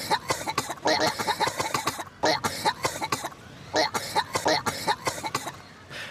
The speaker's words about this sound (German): was den Vorteil hat, dass man es aber sehr, sehr schnell merkt, ja, weil das Spiel einem dann einfach als Soundkulisse quasi nur noch die Übergeb-Sounds reinspielt und dann weißt du schon, okay, jetzt muss ich mal schnell auf die Suche gehen